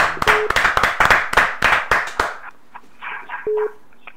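A crowd at a French-language prayer meeting claps together in a fast, steady rhythm for about two seconds, acclaiming after a testimony of healing through prayer. The clapping then fades into a faint, scattered crowd noise, with two short electronic beeps.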